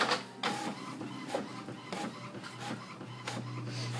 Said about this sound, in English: Can you feel the excitement of the prints? Can you hear it print? Let's move it close. See, it printing. It's printing a schedule.